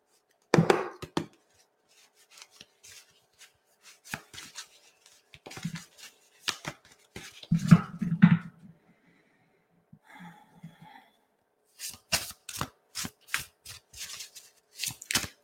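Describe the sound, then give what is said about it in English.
A Rolodex card deck being shuffled, with bursts of crisp riffling and flicking that come in quick clusters, pause briefly, then resume in a rapid run of sharp snaps near the end. “Okay, I'm going to move right along to my Rolodex deck.”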